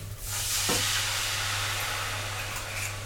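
A steady, loud hiss of red wine and broth sizzling as they hit a hot pan, broad and continuous throughout, with a faint low hum underneath and no voices.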